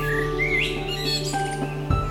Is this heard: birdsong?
yes